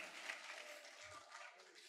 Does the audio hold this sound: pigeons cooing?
no